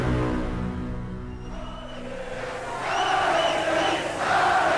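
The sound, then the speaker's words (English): A crowd of 15,000 in Calais roars steadily at a boxing fight between Frenchman Thierry Jacob and Britain's Duke McKenzie, then the cheering swells louder partway through with high shouts and whistles rising above the dense, continuous din. No one speaks clearly over it. “Frenchman Thierry Jacob in his hometown of Calais and with huge support among this 15,000 crowd up against Britain's former world flyweight champion Duke McKenzie”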